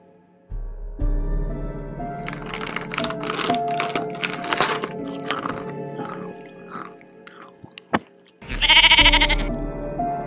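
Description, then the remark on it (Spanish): A sheep bleats up close, a wavering nasal call, followed by crunching and chewing sounds, then another loud, strained bleat near the end. No one speaks. “¿Qué comes, oveja lana?”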